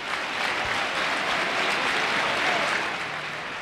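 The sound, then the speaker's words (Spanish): A large football stadium crowd applauds the player Weisman as he comes onto the pitch, in a dense, continuous wash of clapping that holds at an even, fairly loud level for the whole stretch, with no voices standing out. “Y este aplauso no es a Kennedy, es a Weisman, ¿eh?”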